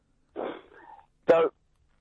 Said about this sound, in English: I, am a bit worried about your cough. Fags, isn't it?